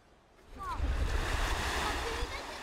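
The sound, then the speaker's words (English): Surf rolls onto a Black Sea beach on the Odessa coastline under a blazing summer sun, a steady, broad wash that swells in after a quiet half-second and stays loud, with faint indistinct voices of beachgoers in the background. “In the waning days of a second summer at war, under the blazing Black Sea sun, you find, well, people at the beach it's actually the first time some of this Odessa coastline has been open for business since the Russian invasion.”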